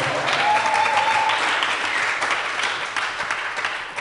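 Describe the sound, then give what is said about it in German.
A steady wash of applause, many hands clapping densely and evenly for the full few seconds, fairly loud and easing off slightly toward the end. “Applaus.”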